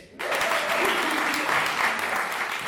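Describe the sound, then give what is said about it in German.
A live audience, asked to make some noise, bursts into loud, sustained applause with scattered cheers, a dense wash of clapping that starts abruptly and stays steady throughout. “Hallo Publikum, toll, dass ihr da seid. Macht ein bisschen Lärm. Und zwar genau jetzt.”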